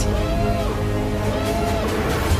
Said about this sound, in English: Hyperspace. Massive Imperial cruiser. We know that noise.